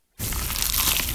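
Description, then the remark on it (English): A loud, crunchy bite into a cheesy slice of pizza, the crackling crunch starting abruptly after a brief silence and continuing for about a second. “Is that the sound of an ooey gooey, cheesy, crunchy slice of PIZZA?”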